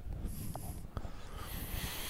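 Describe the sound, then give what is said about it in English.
Heavy, noisy breathing close to the microphone, a continuous rough rush of air with snorting and wheezy edges, loud and steady for a couple of seconds with no talking. “heavy breather.”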